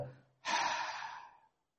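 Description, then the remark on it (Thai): A single long, breathy exhale, released after a held deep breath in a guided meditation breathing exercise, starts abruptly after a brief near-silence and lasts about a second, loud, fading gradually before it stops. “หายใจเข้าลึกๆลึกอีกลึก อีกลึกอีกได้นิดนึงให้ปอดขยายให้กล้ามเนื้อปอดหัวใจขยายขึ้นมา ค้าไว้ก่อน คลายมา”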